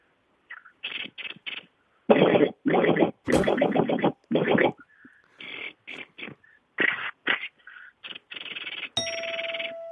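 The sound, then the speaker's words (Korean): A voice imitates gunfire and a falling missile: loud bursts of harsh mouth noise, short rapid pops then longer blasts, ending in a sustained whistling tone. “미사일 떨어지는 소리, 총소리 있다면서요. 그거 한번 들어볼게요.”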